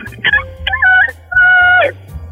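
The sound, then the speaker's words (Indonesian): A voice imitates a small chicken crowing, giving a few short, high, thin calls with sliding pitch in quick succession, loud with no other talk. “Semua terbangun ada suara ayam juga yang suaranya kecil.”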